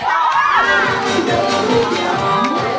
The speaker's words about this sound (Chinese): 来吧，所以热烈的掌声感谢一下我们贺老师好不好？